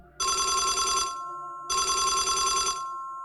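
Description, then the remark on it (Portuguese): A telephone bell rings in two rapid, rattling bursts with a short pause between them, loud, breaking a complete silence, with no voices. “Ficamos imóveis por uns dois ou três segundos, no completo silêncio, que foi interrompido pelo telefone tocando.”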